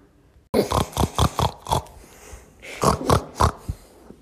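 A pig grunts close by in a quick run of five or six loud, guttural snorts, pauses briefly, then lets out another short burst of three or four grunts.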